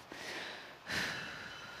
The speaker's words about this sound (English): And the best thing that I know how to do is to simply slow down and take a deep breath